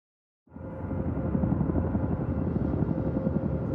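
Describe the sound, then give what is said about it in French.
A helicopter's rotor, in the trailer for the film Il n'y aura plus de nuit, drones steadily after a sudden start, a loud continuous low chopping roar with rapid pulsing that holds constant throughout, with no voices. “Les hélicoptères sont à des kilomètres de leur cible.”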